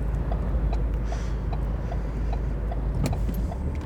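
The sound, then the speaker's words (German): Dense road traffic, heard by a driver waiting to turn left, produces a constant, heavy low rumble of engines and tires, with occasional brief clicks and rattles over the top. No one speaks. “Ah, hier ist richtig, richtig Verkehr und ich möchte gerne links abbiegen.”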